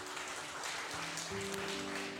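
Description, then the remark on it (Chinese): An audience applauds steadily, a dense wash of clapping with no break, while soft sustained keyboard chords hold underneath; the applause is given as glory to God. “我们把掌声荣耀归给神。”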